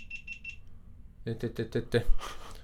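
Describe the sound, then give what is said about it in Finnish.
A camera beeps three times in quick, evenly spaced high-pitched chirps, fairly faint, then stops just before people start talking. “Nyt piippasi joku kamera.”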